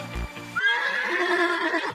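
A short thump opens, then a horse gives one loud whinny lasting more than a second, its quavering neigh rising and shaking before cutting off abruptly.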